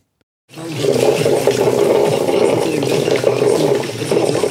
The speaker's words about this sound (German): Gurgeln. Wasser kochen. Ah, fast. Das ist die Kaffeemaschine.